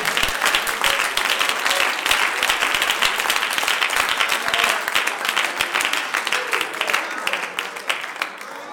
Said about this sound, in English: Now put a Holy Ghost hand clap on that.